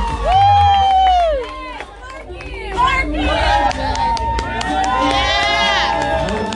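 A crowd at a fashion show cheers and shouts loudly as a model comes to the runway, with high whoops and yells overlapping in a dense, sustained roar that swells and stays energetic throughout.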